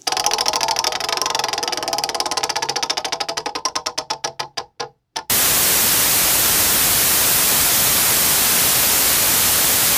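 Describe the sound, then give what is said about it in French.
A buzzing, rapidly pulsing signal slows and stutters into a brief dropout, then a loud, steady wash of analog television static hiss, as heard when searching between TV channels, fills the rest, with no voices. “Alors, qui a reconnu ce son si particulier la neige la neige. Quand tu recherches des, euh, euh, des, émissions à la télé que ça grippe.”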